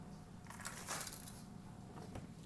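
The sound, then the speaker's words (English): A gate being moved at 9 o'clock at night, giving a few rough, clattering scrapes with a louder burst near the middle and a shorter knock toward the end, without any talking. “move this little attempt to move this gate. It's kind of loud.”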